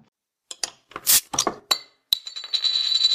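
Glasses clink together in a toast, preceded by a few sharp clatters and knocks, then one bright strike whose high, clear ring lingers to the end.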